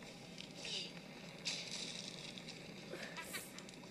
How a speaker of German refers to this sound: Es brennt irgendwie einfach. Kacke, pass auf das Feuer auf.